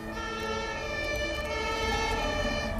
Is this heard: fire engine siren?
yes